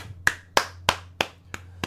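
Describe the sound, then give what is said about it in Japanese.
Six sharp hand claps at a steady, even pace, the last two a little softer, with a faint low hum underneath and no talking. “やったからもう本当に拍手です”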